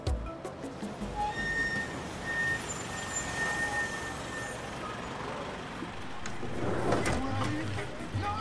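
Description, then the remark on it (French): A bus rumbles up and pulls in to a bus stop, its steady engine noise joined by thin high tones, with a louder hiss of air brakes near the end. “viens, le bus arrive.”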